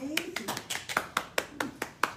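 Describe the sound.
Applause from a small audience: about a dozen sharp, crisp claps in a fairly steady rhythm, moderately loud, with a faint voice briefly underneath at the start.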